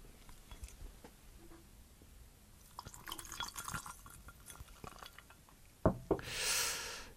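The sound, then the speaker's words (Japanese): Bombay Sapphire gin is poured into a glass over ice to make a gin and tonic: scattered soft clinks and drips, two sharp glassy knocks, then a brief hissing, splashy pour that swells and fades at the end. “これをこの氷のところにまあ、んか入れて飲もうかなということで、トニックウォーターがなんか変に残ってるから、この、このトニックウォーターでジントニックにしようかな。”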